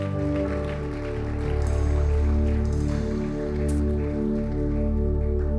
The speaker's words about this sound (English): Thank you, church. How about you give Pastor Ray a huge hand?